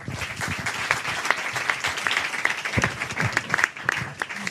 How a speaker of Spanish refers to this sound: Pues un fuerte aplauso